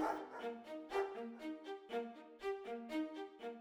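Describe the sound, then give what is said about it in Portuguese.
A pack of sled dogs, the 69 sled dogs from Canada brought aboard a ship in Buenos Aires, barks and yips in a busy, overlapping chorus, with sharp rhythmic barks and some whining, steady throughout with no talking. “chegaram também a bordo o renomado fotógrafo Frank Hurley e os 69 cães de trenó vindos do Canadá”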